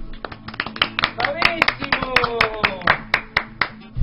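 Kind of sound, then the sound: crowd, audience applause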